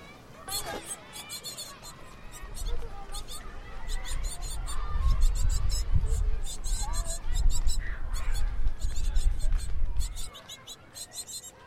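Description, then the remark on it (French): Rapid, insistent high-pitched cheeping of nestling birds inside the wall of the language building at the Lycée Marguerite de Navarre at noon, muffled, keeps up continuously over a low rumbling background with faint murmuring voices as students leave class for lunch. “C'est le cri d'oisillon que leurs parents peinent à faire taire.”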